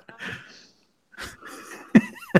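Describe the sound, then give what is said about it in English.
A person coughs and splutters as if choking, with a raspy burst, a pause, then harsher strained coughs ending in two sharp, loud hacks. “almost choked.”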